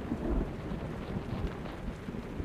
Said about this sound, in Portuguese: Começa a cair uns pingos de água